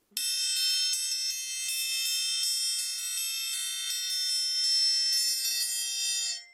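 A triangle rings out in a rapid, shimmering roll, a bright metallic sustained tone held steadily for about six seconds before stopping. No one speaks.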